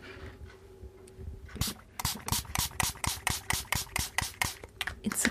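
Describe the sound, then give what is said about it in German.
A spray bottle of vinegar cleaner pumped rapidly onto water spots in a kitchen, firing about a dozen short, crisp hissing squirts in a steady rhythm, after a quiet moment, with no talking. “Sprühen wir mal und gucken wir mal, wie gut das funktioniert.”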